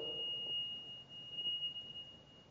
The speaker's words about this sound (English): oh, okay. So that's not an alarm we have to pay attention to. That's a local alarm, somebody else's local alarm, not our local alarm.